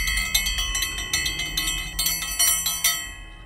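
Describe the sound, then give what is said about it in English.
A brass hand bell with a cold metal handle, taken from a chest beside a bed, shaken vigorously, its bright metallic clangs coming in a rapid, uneven stream of strikes that ring on and overlap, loud with no voices. “her fingers found the cold metal handle of the brass bell on the chest beside her, and she jangled it hard.”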